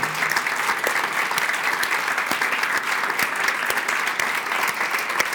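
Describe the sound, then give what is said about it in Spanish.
A large group applauding God during a sermon claps steadily and continuously, a dense, sustained wash of applause with no voices standing out, maintaining an even, strong level throughout. “Porque si le vas a aplaudir a Dios porque Él es el yo soy, Él merece otro tipo de aplauso.”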